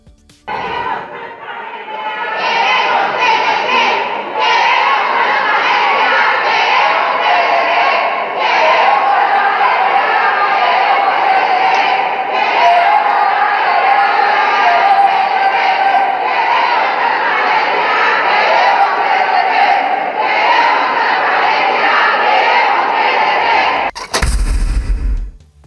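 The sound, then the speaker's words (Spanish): A large crowd of protesters roars and shouts together for over twenty seconds, loud and dense, with rhythmic surges of chanted slogans demanding transparency and the '3 de 3' law, ending abruptly in a short burst of noise. “Queremos transparencia, queremos 3 de 3, gritaban.”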